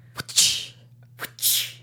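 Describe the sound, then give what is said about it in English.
A voice imitates a whip crack twice, each time a sharp click followed by a breathy hissing burst, fairly loud over a low steady hum. “Wasn't that good? I thought you'd be better at it.”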